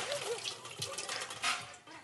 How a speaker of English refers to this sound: The girls go around washing everybody's hands. They pour the water over your hands above a silver bowl.